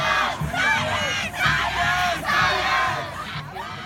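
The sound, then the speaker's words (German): A large crowd of demonstrators at a march for science through a city centre, including a group of Fridays for Future pupils, shouts in unison. Loud rhythmic chanting swells with brief dips in between, and many voices blend into a dense, continuous roar. “Auch eine Gruppe von Schülern von der Fridays for Future Bewegung hat sich unter die Demonstrierenden gemischt.”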